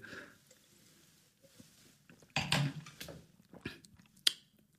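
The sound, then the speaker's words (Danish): Glasses drained after a toast: soft swallowing and sipping noises, then a few sharp clicks and knocks as glasses are set down, with no talking. “Så fik vi også øh, bundet glassene.”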